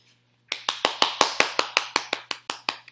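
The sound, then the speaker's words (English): A mother claps her hands for herself about a dozen times in a steady, fairly quick rhythm, each clap sharp and bright, after a brief quiet start. No one speaks. “That's me clapping for myself because I think that's a big accomplishment.”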